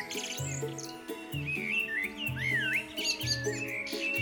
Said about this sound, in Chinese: 他也翻山越岭，爬到最高的山上呢，收集了叽叽啾啾的鸟叫声。